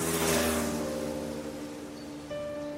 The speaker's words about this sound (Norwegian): Den eldre damen blir skremt av oppførselen til mopedisten. Han kjører fram og tilbake